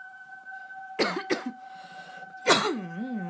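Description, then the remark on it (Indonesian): Several loud coughs burst out in quick clusters, the last one trailing into a raspy, wavering throat sound, over a faint steady electronic hum. “masih dipersembahkan oleh batuk-batuk.”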